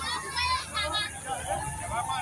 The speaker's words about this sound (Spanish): Hoy se escuchan más los gritos de los que es allá en la categoría 9 y 10.